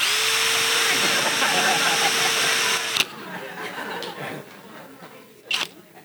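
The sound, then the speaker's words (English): A Flex cordless power drill whirs steadily for about three seconds, then cuts off abruptly, leaving quieter background noise with a brief clatter near the end. “So it didn't actually say it on this flex one that I have now, but the Skil drill I have that died a while back, the Skil one in the packet said, do not use as a dental drill.”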